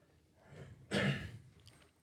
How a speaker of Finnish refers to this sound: Sitten tästä, tältä köhimiseltä ja niin kuin, minä olen 20 vuotta esiintynyt, minä en vieläkään osaa käyttää ääntä, että mulla se, se ei kestä.